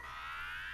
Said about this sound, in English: That's a cat.